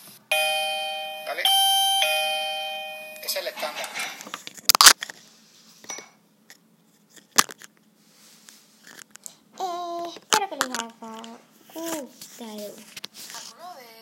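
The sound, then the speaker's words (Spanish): A stick-on electronic doorbell chimes loudly, a sustained ringing tone lasting a few seconds, followed by scattered clicks and a young child's babbling voice. “Bien, pues aquí podemos ver el timbre, se pega, vamos.”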